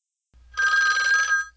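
A telephone in a movie scene gives one bright, buzzy ring lasting under a second, clear, over a faint low hum, with no voices, before an answering machine picks up.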